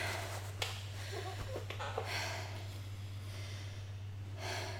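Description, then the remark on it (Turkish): Quick, continuous connected breaths drawn in and out through the mouth, one after another with no pause, over a steady low hum. “ağızdan bağlantılı nefes dediğimiz bu işte arka arkaya nefes almak, bağlantılı nefes.”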